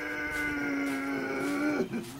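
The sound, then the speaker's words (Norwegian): A farm animal on a mountain summer pasture lets out one long, steady, droning call that holds its pitch for nearly two seconds before breaking off with a short dip, with no talking. “Og vi som skal dra med dyra helt hjem fra setra”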